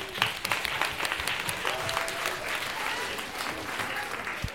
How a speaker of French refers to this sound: Et pendant ce temps-là, on va vous applaudir très fort et vous remercier pour votre participation.